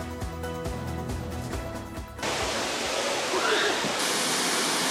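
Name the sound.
waterfall rushing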